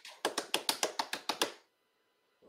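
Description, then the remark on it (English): A quick run of about nine rapid, evenly spaced hand taps on a hard surface, like an improvised drum roll, loud, ending abruptly in silence. “Can I get a real drum roll?”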